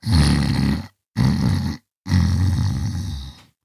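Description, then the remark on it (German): Loud battle cries of a charging horde of neon-green radioactive bogeys on the shore of the Rotzesee: three rough, roaring bursts of massed voices, deep and raspy, separated by short silences, the last one longest and slowly fading. “Das Ufer und die Luft über dem Rotzesee hallt vom Kampfgeschrei der neongrünen radioaktiven Popel wieder.”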